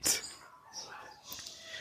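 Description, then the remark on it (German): A sharp bark from one of several dogs around the speaker bursts out at the start, followed by a fainter yelp or two, all quiet with some low background noise. “Wie viele Hunde sind um dich herum”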